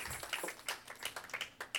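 A group applauds for Jesus Christ with a burst of sharp, crisp hand claps in a loose, uneven rhythm, moderately quiet and with no voices over it.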